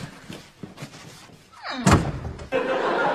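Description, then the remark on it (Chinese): A door is opened for a visiting uncle with a brief creaking sweep, then swung shut with one loud, sharp slam; a steady rushing noise follows, while faint murmuring lies beneath the quieter opening. “快给我开门去， 给叔叔开门去， 快， 慢点慢点啊！”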